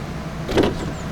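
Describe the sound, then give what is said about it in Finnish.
Doors of a bright orange BYD articulated fully electric bus open in Vantaa, Finland, while it rains, with a brief mechanical whoosh and rumble that rises and fades within a second, over a steady low idling hum. No one speaks. “Nyt me avataan bussin ovet ja”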